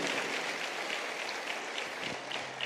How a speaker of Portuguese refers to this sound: Pode aplaudir Jesus, que é obra do Espírito